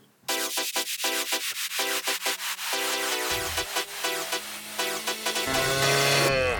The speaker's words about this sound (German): Mu, sagt das Rind. In dem Fall ist es eine Kuh.